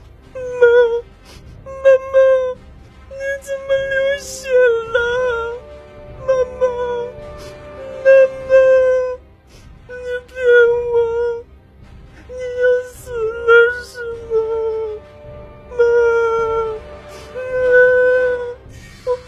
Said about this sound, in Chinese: 小狼被吓住了，大声的哭了起来。